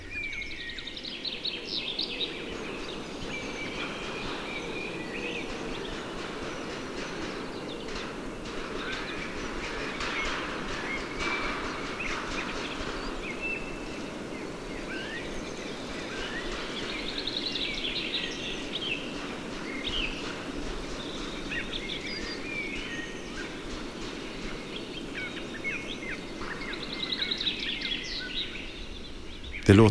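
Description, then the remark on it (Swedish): Far-off forest cock birds fighting, one cock fighting another further off in the forest, well away from the microphones, heard as faint, rapid clattering bursts beneath a steady outdoor hum, with scattered birdsong drifting over it and no one speaking. “Längre bort i skogen slåss den med en annan tupp. Rätt långt från våra mikrofoner.”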